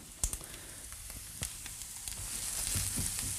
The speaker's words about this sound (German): Tofu knuspert. Perfetto.